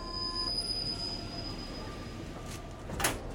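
Metro train wheels squeal with a steady high-pitched whine over a constant low rumble of the moving carriage, with a brief clattering burst near the end; no one speaks.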